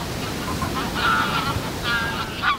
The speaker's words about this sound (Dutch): Dat harde gakken van grauwe ganzen.